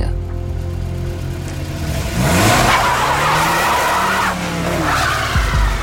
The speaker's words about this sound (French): Quelques minutes plus tard, la Peugeot 505 qui avait déposé les gangsters revient les chercher.